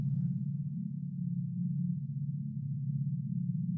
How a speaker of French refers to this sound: Quel est ce son étrange comme un vrombissement grave. D'où est-ce que ce bruit provient? Ça semble tout près et lointain tout à la fois.